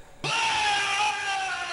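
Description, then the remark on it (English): A single loud, sustained scream in the style of a video game character's death cry. It bursts in abruptly and holds for over a second with a slightly falling pitch, no talking. “have you ever played uh, American Gladiators? No, I did not. Has the best scream in a game ever.”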